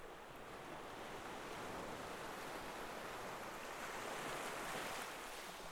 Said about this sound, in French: Le fracas des vagues s'assourdit en un balancier arythmique.